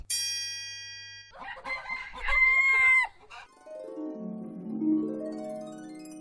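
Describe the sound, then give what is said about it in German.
A rooster lets out one loud, clear, raspy crow. It is preceded by a short bright chime and trails into a wavering tonal sound. No one speaks. “Bei Frage 1 handelt es sich um einen Hahn.”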